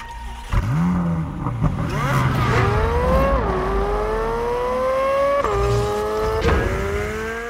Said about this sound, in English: I can't think of any better way to close out this segment than to let listeners hear Chevrolet's tease of that engine screaming around a track.